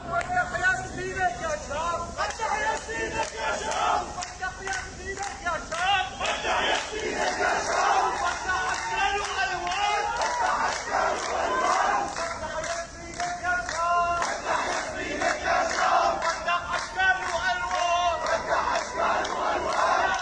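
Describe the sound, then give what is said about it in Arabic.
At the funeral of Syrian director Hatem Ali in Damascus, as the coffin leaves Al-Hassan Mosque, a large crowd chants his name, shouts takbir and applauds continuously, many voices merging into a loud, surging roar with rhythmic shouted phrases and applause bursts throughout. “وفور خروج النعش من الجامع بدات الحشود بالتصفيق والتكبير وتعالت الهتافات مردده اسمه”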